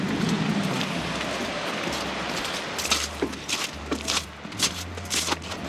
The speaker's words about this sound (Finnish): Tämä on hyvin tämmönen teollisen näköinen alue niin sanotusti rekkoja joka paikassa ja sitä korostaa vielä tämä kaunis loskakeli lotisee, lotisee loskat kengällä oikein viettävästi